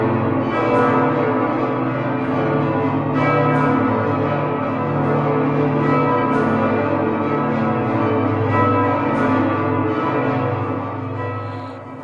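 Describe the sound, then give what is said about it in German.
Large, multi-ton cathedral bells in Braunschweig, Germany, cast in the late Middle Ages on the Burgplatz in front of the cathedral, ring together in a dense, sustained peal, deep booming tones layered with shimmering overtones, loud and continuous throughout with strikes recurring every few seconds and no voices. “diese Glocken sind tatsächlich ja im ausgehenden Mittelalter direkt vorm Dom auf dem Burgplatz gegossen worden, aber tonnenschwer eben”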